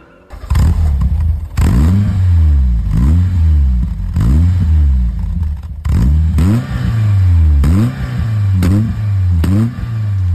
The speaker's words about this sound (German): Rotzig. Allerdings. Richtig rotzig, richtig schöner Vierzylinder-Sound. Schön roh. Ja, und auch so ein bisschen holprig, so.